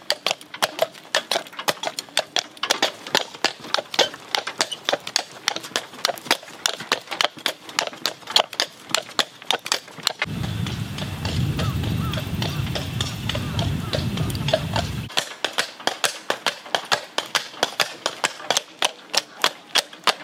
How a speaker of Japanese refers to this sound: 今朝は湖のほとりを歩く馬車のいい音それではお聞きください